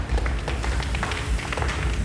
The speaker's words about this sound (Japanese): そう、これ何してるの？何してると思います？これ皆さんも想像してもらいたいんですけど足踏みしてる足踏みしてますパチパチっての何、はい、これクラップですクラップ、はい、手拍子ね